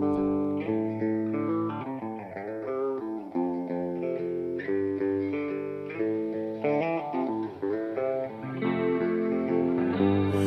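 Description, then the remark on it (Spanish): A cover version of a song plays steadily throughout, with dense, effects-laden electric guitar tones carrying shifting chords and melody at a full, even loudness, and no one speaking over it. “vamos a escuchar la versión de … de hace casi 2000 años”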